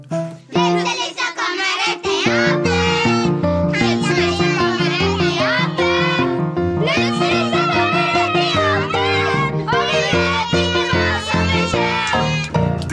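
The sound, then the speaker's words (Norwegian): A studio audience sings the show's own song together, many voices blending into a loud, continuous melody with sustained notes and steady rhythm from start to finish. “det er sangen vår, og denne gangen ble den sunget av publikum.”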